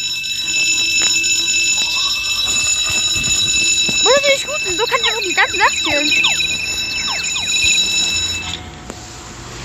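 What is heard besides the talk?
alarm ringing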